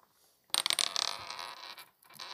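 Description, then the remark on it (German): Dice clatter and roll across a hard tabletop, a quick burst of bright clicking impacts that settles into a softer rattle, alone without any talking. “Ach, da liegt der Würfel.”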